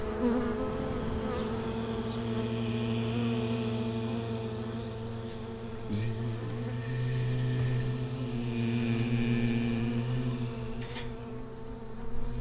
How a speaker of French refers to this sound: il faut que je vous montre ça, parce ça, c'est la danse des abeilles.